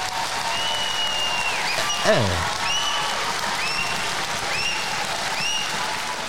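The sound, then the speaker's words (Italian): A crowd applauds steadily and loudly for several seconds, with shrill whistles rising above the clapping and a brief vocal exclamation partway through, as the audience's applause is measured by an applause meter. “Noi vi ricordiamo che non contano gli urletti, non contano i fischi, non conta niente se non l'intensità e la continuità nel tempo della, della, mm, dell'applauso, di tutti i rumori del, della platea perché è la media dei decibel.”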